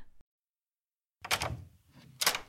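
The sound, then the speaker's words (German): A front door is unlatched and opened: a sharp metallic click and rattle of the handle, followed by a second clack about a second later, with no voices. “Ich mach nur kurz auf. Wahrscheinlich hat er die Schlüssel im Gepäck verpackt.”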